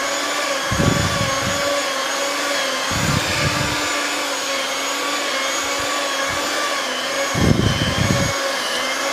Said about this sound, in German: So, jetzt sind wir das mixen. Also mit einem Teigkneter. Oder geht auch in der Küchenmaschine natürlich.